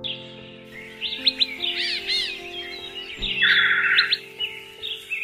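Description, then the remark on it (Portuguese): Birds sing in mango trees in a house's backyard in Recife, in a busy, overlapping mix of quick chirps, whistled sweeps and a buzzy trill, clear, over a steady low sustained tone that runs throughout. “tinha um quintal cheio de mangueiras que davam mangas docinhas e nelas cantavam os pássaros que ele tanto amava ouvir cantar.”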